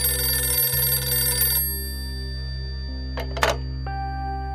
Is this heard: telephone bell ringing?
yes